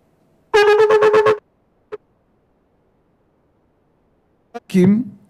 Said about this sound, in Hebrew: והתרועה, יש כמה סוגי תרועות. תרועה הסטנדרט הרגילה שכולם מכירים